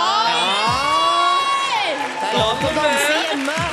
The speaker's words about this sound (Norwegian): Jeg elsker at det er applaus! Ja, nå, ble det, nå ble det fest. Nå er det fest i studio.